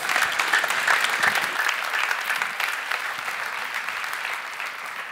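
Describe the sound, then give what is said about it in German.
A crowd applauds steadily, a dense wash of many hands clapping at moderate volume that holds for several seconds and tapers slightly toward the end, with no voices over it. “Dein Applaus.”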